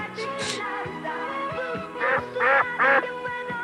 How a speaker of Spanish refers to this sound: Ah, cabrón. Eso fue un pato, qué chingados. Sáquese el pinche pato.